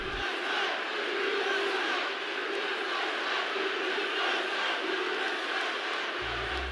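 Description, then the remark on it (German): A large crowd in a big arena roars and chants "USA, USA" together, starting before Muhammad Hassan can say a word, a loud, continuous wall of voices swelling slightly as the chant repeats, with no single speaker audible above it. “Sie chanten USA, USA.”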